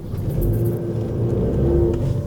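A car driving away from the city, with a steady, low engine rumble and road noise, holding a constant hum with a faint tonal whine, no voices present.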